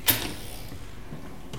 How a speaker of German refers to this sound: So, die Tür ist hinter uns zu.